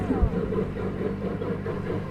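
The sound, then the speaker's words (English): The engine of the little puffer boat Pickie Puffer chugs steadily as it approaches on the water, a continuous low, throbbing rumble with a faint pulsing rhythm, holding an even loudness throughout. “And here's the little Pickie Puffer coming.”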